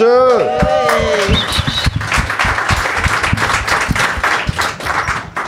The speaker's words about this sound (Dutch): Mijn moeder is hier. Dames en heren, applaus voor mijn moeder.